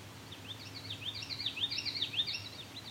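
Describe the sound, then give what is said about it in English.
A common yellowthroat sings a rolling series of quick, high, repeated warbled phrases, steady in rhythm, over a low background hum. “Common yellow throat again. Very strong common yellowthroat songs.”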